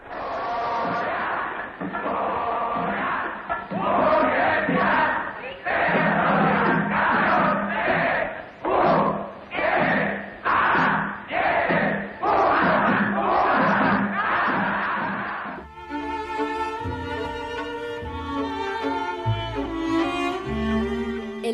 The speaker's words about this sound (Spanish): sus cines como el Río, el Venus y el Goya, lugar del cual nacería la famosa porra universitaria.